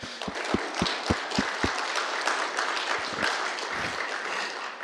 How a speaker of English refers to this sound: Let's give God a big clap for that.